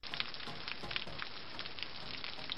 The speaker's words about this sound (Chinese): 哎，好大的流水声呀！